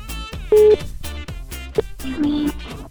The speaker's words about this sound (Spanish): Estamos marcando. estamos llamando.